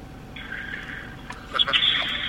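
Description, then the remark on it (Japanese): Telephone line tones as a call is placed during a broadcast to a person at Haneda Airport, with a steady electronic ringback hum and brief clicks, moderately loud over a faint background hiss. “これもね、電話をつなぎます。今、電話待ってるはずです。”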